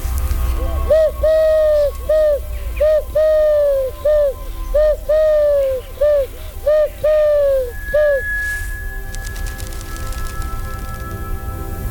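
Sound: bird calling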